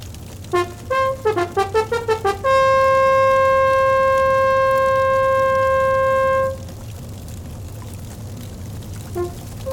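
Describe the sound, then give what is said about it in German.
A horn plays a quick series of short rising and falling notes, then holds one long, loud, steady tone for several seconds before cutting off, with a faint rumble beneath. “Höre mein Horn!”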